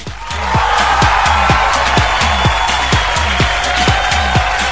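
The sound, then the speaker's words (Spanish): A loud, steady burst of crowd applause fills the whole stretch, with a regular low thumping beat pulsing underneath it and no one speaking. “así que un fuerte aplauso para ellos dos.”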